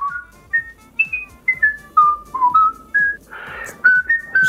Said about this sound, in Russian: Кто-то просто насвистывает.